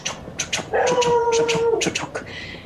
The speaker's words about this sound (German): in der Ferne heulen Hunde, wilde Hunde, die unterwegs sind oder welche, die auf den Bauernhöfen anschlagen, die hier in der Landschaft verteilt sind.